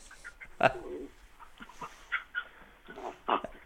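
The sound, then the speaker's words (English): A female dog whimpers and yips in short, excited bursts while playfully trying to bite her owner, one sharp cry near the start followed by several softer whines spread out, with no talking. “Sorry, my dog is being an absolute spastic.”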